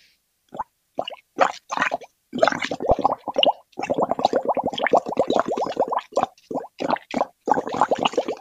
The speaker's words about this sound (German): Ich werde jetzt da rein blubbern. Ja. Danach sieht der Kittel und das Zimmer aus wie Sau, aber ich mache das jetzt mal. Einfach mal wahrnehmen, was man hier so für ein Geräusch hört.